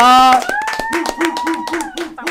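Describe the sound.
A burst of applause, with hands clapping in quick, uneven bursts, over a loud sustained tonal voice or cheer that rises and holds steady.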